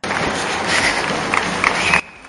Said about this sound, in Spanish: Escucho cómo el suelo soporta mis pisadas. Un sonido rítmico, aunque a veces descompasado cuando me cruzo con otros corredores como yo. La suma de todas esas pisadas sobre la tierra y asfalto termina creando una canción muy nuestra